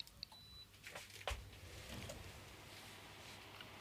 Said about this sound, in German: die Investition gewagt und habe mir für mein, für meine Workstation Homeoffice Arbeitsplatz One Two habe ich mir eine mobile Klimaanlage gekauft und die hat einen Vorteil, die ist überhaupt nicht laut. Hör mal.